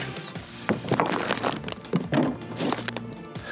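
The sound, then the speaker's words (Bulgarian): A knife slicing through Ruse-style boiled sausage on a cutting board, a series of soft, irregular cuts and taps, with a faint background hum. “Реже русенско варене.”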